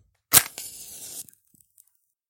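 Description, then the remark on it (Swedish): A match is struck with a sharp scratch, then flares into a short fizzing hiss of burning that fades within a second, fairly loud with no voices. “Jag hoppade bakåt ner på marken igen och tände en ny tändsticka så fort jag bara kunde”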